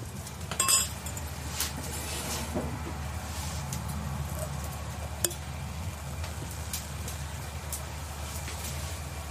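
Wine glasses clink together once in a toast on a wine farm where a cottage was rented, bright, near the start, ringing briefly before fading into a steady low outdoor rumble with a faint tap later on.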